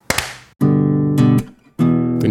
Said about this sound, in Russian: Я хлопнул только что.